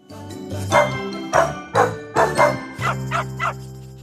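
A dog barks repeatedly in short, punchy bursts, about eight in quick succession, with the last few quicker and softer, over a steady low musical drone.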